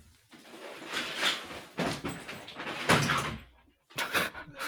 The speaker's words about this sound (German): Ich mache mal kurz die Tür zu, okay?